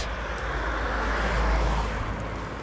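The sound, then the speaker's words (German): Steady roar of traffic on a road through a forest, heard while walking beside it to an indoor swimming pool, with a deep low rumble and broad hiss, swelling slightly mid-way as a car goes by, then easing off; no voices. “Ähm, ja, ich gehe gerade neben einer Straße in einem Wald ins Hallenbad, weil wir da schwimmen haben.”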